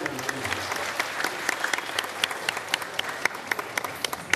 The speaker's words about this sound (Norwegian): Filmen om fiskeselgeren som elsker fotballaget Chelsea og kjøper laget sine trøyer til alle som jobber for seg, får fram mye humring i salen og stående applaus under rulleteksten.